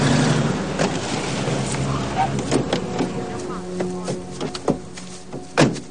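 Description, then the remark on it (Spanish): Many police patrol cars arrive at a field with a low engine rumble and tire noise, followed by sharp door clunks near the end as plainclothes officers get out of a car, with indistinct voices murmuring in the background. “multitud de patrullas llegan al campo.”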